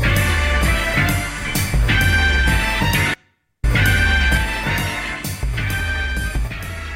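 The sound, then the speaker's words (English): A square dance song played from a VHS tape plays loud and full with a steady, bouncy beat, cutting out to silence for a split second midway before resuming. No one talks over it. “this Go is the it. song that Dom used to uh, square dance to”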